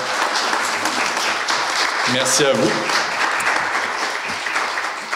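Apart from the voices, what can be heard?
audience applause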